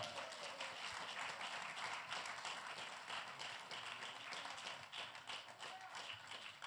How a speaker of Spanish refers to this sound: Denle aplauso al Dios de la gloria.